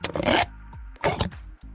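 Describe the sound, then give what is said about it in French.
A child burps twice into a funnel, each burp a raspy burst that trails into a hollow, buzzing resonance. The sound is fairly loud, with no talking. “très malade, oui, qui rote dans un entonnoir pour que ça résonne”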